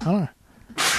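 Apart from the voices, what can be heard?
sneeze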